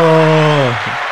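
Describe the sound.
Dense, steady clapping fills about a second, with a sustained voice-like tone riding over it that slides down in pitch before the applause fades slightly.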